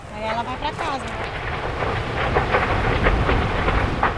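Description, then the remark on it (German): A dense, steady roar of fire burning a stretch of dense, still-standing rainforest, thick with crackles and sharp pops and a few brief whistling tones near the start, loud throughout. “Die Flammen donnern, brausen und schreien, schleudern Bäume meterhoch in die Luft.”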